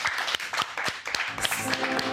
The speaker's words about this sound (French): Mesdames et messieurs, dans le studio, faisons du bruit, tonnerre d'applaudissements.